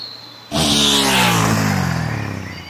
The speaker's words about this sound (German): Hat sich auch gleich ein Motorrad besorgt. Äh, und mit dem fegt sie jetzt hier lang?